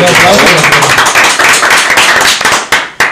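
A crowd breaks into steady applause at an event marking 100 years of La Chalana, many hands clapping at once in a dense, loud patter that holds for a few seconds, with a couple of sharper claps standing out near the end.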